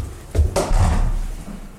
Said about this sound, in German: Tür auf.